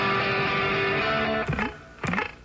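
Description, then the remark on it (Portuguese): The opening chords of a rock song: a loud, distorted electric guitar chord rings out and sustains, then two sharp chord stabs follow about half a second apart, each sliding down in pitch. No voices. “Basicamente, quando os primeiros acordes disto arrancavam, vamos pôr outra vez, vamos pôr outra vez aquele som das guitarras, toda a gente entrava em delírio.”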